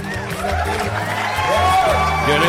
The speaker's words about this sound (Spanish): se merece el aplauso, un aplauso.